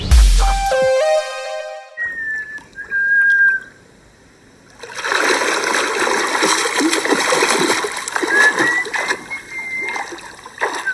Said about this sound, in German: Rauschen, strömen, fließen.